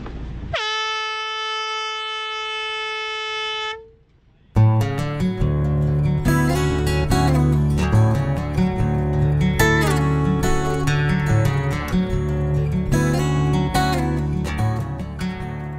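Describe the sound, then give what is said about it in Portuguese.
A single loud, steady start horn blares for about three seconds with a flat, buzzing tone, signalling the start of a long-distance swimming challenge at 23:15 on 18 February, given by the official observer of the Leme ao Pontal Swimming Association, then stops abruptly. Loud, busy music with a driving beat takes over right after. “A buzina”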